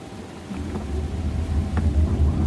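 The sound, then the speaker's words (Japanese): A Honda ZR-V hybrid car pulls away, starting off quietly on its electric motor as the accelerator is pressed. Then the engine comes on with a low rumble that swells steadily over a couple of seconds, a deep continuous hum with faint road noise and no one speaking. “動いた、うん、で今エンジンだったかなあこれでブーンって言ったのは分かりました、うん、動き出し全然静かでしたね、うん、モーターで動いたんでね”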